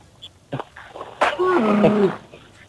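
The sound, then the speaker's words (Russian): A camel starting a race snorts with a sharp, breathy blast, then lets out a throaty, rumbling grumble lasting under a second, preceded by a couple of softer puffs and thumps of its foot striking, loud. “И звук, с которым стартует верблюд, тебе нужно будет сейчас повторить.”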